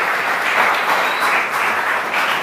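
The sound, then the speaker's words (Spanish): Sustained applause from a crowd, given to the Lord, a dense, steady wash of many hands clapping at once, loud and continuous throughout with slight swells in intensity. “Denle un aplauso al Señor por ese momento que va a ser muy chévere.”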